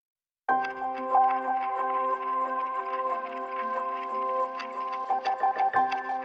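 A clock ticks with sharp, regular clicks layered over a steady, sustained musical drone, both at moderate volume, with no voices.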